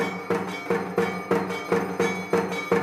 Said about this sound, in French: Ces sons, ces tambours et cloches que vous entendez ont été enregistrés dans un temple hindou par notre correspondant en Inde, Sébastien Farsi.